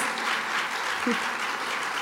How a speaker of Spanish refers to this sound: Denle un aplauso al Señor para que nadie se duerma.